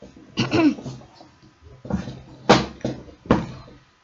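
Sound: chair being adjusted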